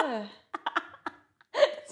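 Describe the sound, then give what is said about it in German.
A voice imitates a burp with a drawn-out, falling croak, then several short choppy vocal bursts and a final voiced grunt, moderately loud. “Und die findet Rülpsen eklig. Richtig schlecht nachgemacht.”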